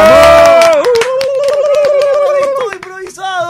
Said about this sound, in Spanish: ¡Arrancamos esto improvisado! ¡Un fuerte aplauso porque arranca